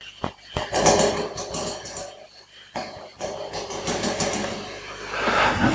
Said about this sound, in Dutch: dan ga ik hier in mijn kamer rondkijken en dan heb ik hier een ventilator staan, niet omdat het hier zo warm is, maar dan hoef ik hem hè, dan staat hij er van de zomer en dan ga ik dit doen.